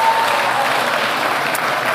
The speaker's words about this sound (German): Und das Letzte ist, meine Eltern sind Pastor oder Missionar oder sind so tätig gewesen. Einmal Applaus, herzlichen Glückwunsch.